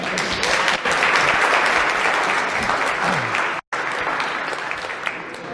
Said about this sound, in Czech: Prosím, přivítejte už potleskem.